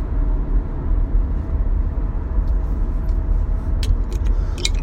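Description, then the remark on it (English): A car rolls through heavy traffic, its engine and road noise forming a steady low rumble, with a few faint high clicks and rattles toward the end and no talking. “But anyways, guys, I got another half hour of this crap to go because that's how traffic is here.”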